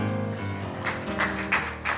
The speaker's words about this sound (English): Let's give our applause to the Lord, could we? Thank you, Jesus.